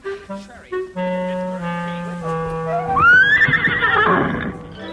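A horse neighs loudly, a high, shaky whinny that rises and then wavers downward. Lower harmonic tones come before it, with no talking.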